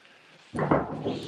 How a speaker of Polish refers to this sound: To są odgłosy strzałów z waszej strony, ze strony ukraińskiej, czy to strzelają Rosjanie? To są odgłosy wybuchów e, artylerii e, rosyjskiej. E, można powiedzieć, że artyleria rosyjska niestety ma znaczną przewagę w mieście.